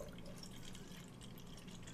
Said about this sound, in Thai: ก็แบบคุณอยู่กับ ASMR เสียการเทน้ำนะครับ